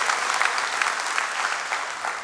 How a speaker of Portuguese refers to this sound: Pode novamente celebrar, pode novamente dar uma salva de palmas a Ele, pode glorificar em nome de Jesus.